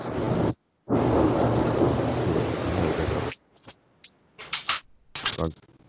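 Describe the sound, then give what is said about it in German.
A loud, roaring crack of thunder in a storm, sustained for a few seconds with rain noise, briefly cutting out once, then dropping away to quieter brief sounds and faint voices. “Junge, hat man gerade diesen Donner gehört?”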